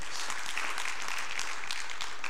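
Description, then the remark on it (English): An audience in a church applauds steadily, a dense wash of many hands clapping at once that holds at an even level the whole time. “Does anyone else love this church? Let me hear your hands.”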